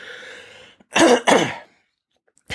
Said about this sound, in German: ich muss mich eben räuspern.